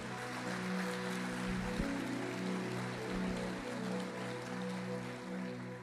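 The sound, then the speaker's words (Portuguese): A church audience in a Portuguese-language service applauds loudly at the preacher's call, a dense, steady wash of clapping that holds for about six seconds without fading, over a sustained low droning tone. “Aplaude ele forte, aplaude.”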